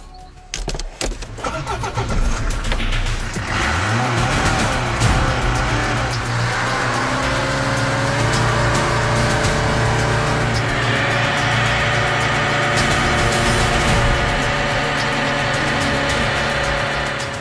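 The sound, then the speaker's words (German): A car engine cranks and roars to life, then revs hard and steadily for a long stretch, its pitch rising and holding as it strains to tow a heavy load of televisions, refrigerators and washing machines. Loud, no voices. “versucht man, all die Fernseher, Kühlschränke und Waschmaschinen eines deutschen Lebens mit dem Auto abzuschleppen, fällt das schwer.”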